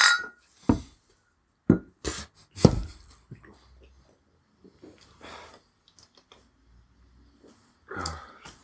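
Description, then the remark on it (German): Bottles of Eisfjord Lager, a Greenland ice cap beer, being opened and glasses clinking in a toast: a string of sharp clicks and short hissing bursts, irregularly spaced with quiet pauses between, loudest in the first three seconds and again near the end. “Ähm, machen wir erst doch erstmal Bier auf.”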